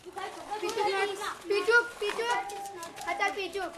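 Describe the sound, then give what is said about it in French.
Young boys playing marbles in a village lane, in the shade of the walls of tall houses with ornamented facades, their high voices calling and chattering over one another in a lively, continuous stream, with no clear pauses and no other sounds standing out. “À l'ombre des murs des hautes maisons aux façades ornementées, les petits garçons rentrés de la médersa jouent aux billes sous le regard placide des anciens, sous les vérandas aux bancs de pierre.”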